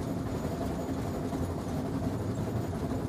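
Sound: train travelling on rails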